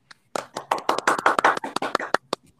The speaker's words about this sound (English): Rob Schneider deserves a round of applause. He does. And so a quick round of applause for Rob Schneider.